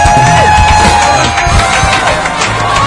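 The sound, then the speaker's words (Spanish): At La Chorrera, loud, steady applause and cheering welcome a musician as a guest, a dense wash of claps and shouts with a few rising whistles or whoops poking through. “Estoy hablando de una referencia en la música, sin lugar a dudas, pero sin lugar a dudas, en el arte de hecho un aplauso porque está con nosotros ….”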